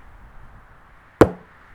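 A single sharp thunk as a mobile phone, dropped from the sky by Alison as she flies over the zoo, lands on someone's head, loud against near silence and fading quickly.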